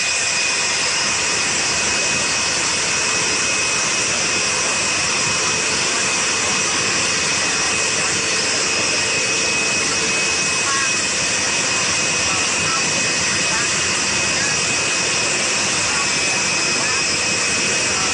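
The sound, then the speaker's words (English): The jet engines of Air Force One idle on the tarmac in Florida as members of the Trump family get off the plane: a steady, loud roar with a high whine that holds constant throughout without any break. “And you are now watching some of the other members of the Trump family get off the plane.”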